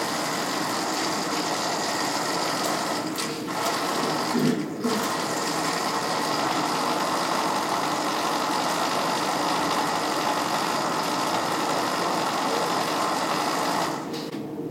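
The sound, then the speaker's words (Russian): A smart football with electronics inside, having stopped moving, gives off a steady electronic buzzing whir, loud, running unbroken except for a few brief dips, with no voices. “И он снова звенит электроникой.”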